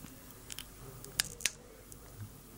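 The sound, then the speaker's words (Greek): A corkscrew works a cork out of a bottle of sweet wine: a few quiet creaks, then two sharp, crisp clicks in quick succession over a soft background hiss, with no one speaking. “Ακούτε αυτή τη στιγμή το τυρμπουσόν που θα Πάνε κοντά, ανασύρει πάνε κοντά, έτσι από να- τη φιάλη.”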